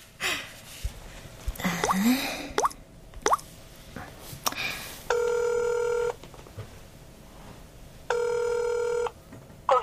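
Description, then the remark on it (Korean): A phone rings out twice with a steady electronic tone, each ring about a second long with a pause between, following some soft clicks and handling noises. Nobody picks up. “전화 안 받아?”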